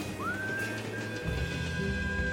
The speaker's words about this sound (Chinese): 寂静的平原上响起一段口哨